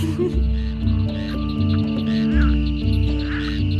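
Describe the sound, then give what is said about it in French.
A loud, continuous chorus of frogs croaking in a marsh after being disturbed by noise, with deep, throaty calls overlapping in a steady pulsing rhythm and no talking. “Un peu plus loin, alors qu'il longeait des marais, des grenouilles dérangées par le bruit se mirent à coasser.”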